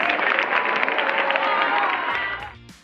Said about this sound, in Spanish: mientras esos gritos de sororidad se escuchaban al interior de la corte